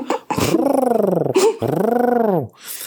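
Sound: voice imitating pigeon cooing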